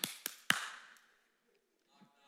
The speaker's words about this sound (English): Give me a knock.